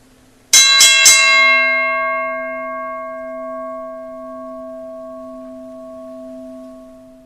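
bell ringing

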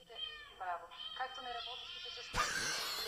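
kittens meowing

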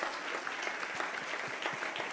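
loud audience applause

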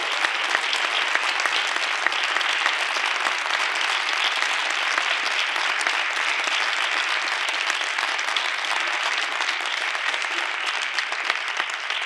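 audience applause

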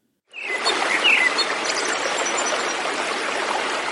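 flowing stream water

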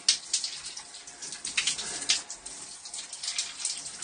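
shower water running

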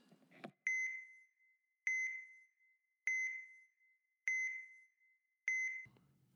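phone notification beep

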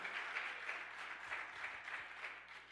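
audience applause

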